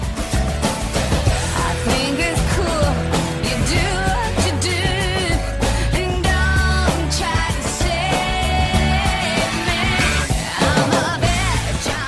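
A 1997 pop-rock song plays loud and continuous, with a female lead vocal singing over driving drums, bass and guitars, the full band sound staying steady with no talking over it.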